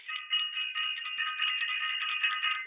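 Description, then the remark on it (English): A bell rings continuously for a few seconds, a bright, steady metallic trill at even loudness with no pauses, heard on its own without any voices. “Ring the bell for self invested and for everyone who is self invested.”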